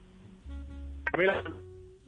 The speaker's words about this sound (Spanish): Pues oyéndolo regular, regular tirando a mal porque debe estar usted en su celular y debe tener pésima señal.